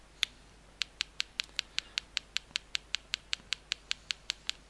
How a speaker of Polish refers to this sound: Urządzenie wydaje takie pstrykanie, takie tyk, tyk, tyk, tyk, tyk, tyk, tyk, e, szukając, e, identyfikując e, obiekt i informuje nas, że znalazło nową etykietę.